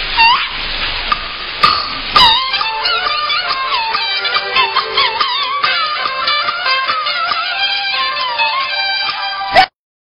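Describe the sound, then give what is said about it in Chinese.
A brief burst of dense audience applause at an errenzhuan stage show for about two seconds, then a bright, high-pitched melodic instrument takes over and plays a lively, warbling tune. “来，朋友们，掌声，掌声，掌声！”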